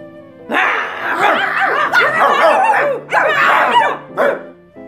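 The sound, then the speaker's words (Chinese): Several sheepdogs bark loudly and excitedly as they run toward the sound of a flute, their overlapping yaps running together in dense, steady bursts with a couple of brief pauses. No one speaks. “牧羊犬朝笛声的方向跑去。”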